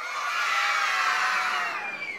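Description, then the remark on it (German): A single boy's high-pitched, sustained cheer of joy, loud, rising and then trailing off over about two seconds with no talking around it; 15-year-old Louis cheers in his father's workshop in 1824 after pressing dots into leather with an awl. “Louis jubelt.”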